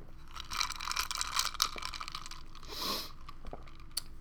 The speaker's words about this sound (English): I'm going to take a sip of my drink. I forgot to do my drink check in. Hold on.